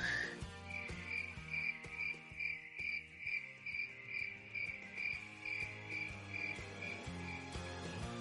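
A cricket chirping sound effect: a steady, evenly spaced pulse, a bright high trill repeating about twice a second over a soft background hum, with no one speaking.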